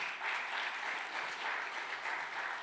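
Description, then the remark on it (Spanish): An audience applauds steadily, dense overlapping claps forming a continuous, fairly loud wash of sound with slight swells, lasting a few seconds with no voices standing out. “De otro aplauso fuerte a papá.”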